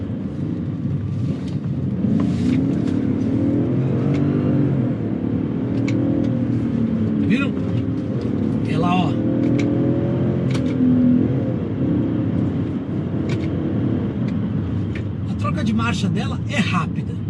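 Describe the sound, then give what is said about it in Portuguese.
A BMW 540 car engine hums steadily at a low pitch, rising gently as the car accelerates through a curve with Sport mode switched on, with a person talking over the constant engine drone. “E aqui, ó, tô pondo no Sport DC fazendo aqui a curva, aí. É aqui que faz a diferença você ter um Sport DC ligado. 540 BMW.”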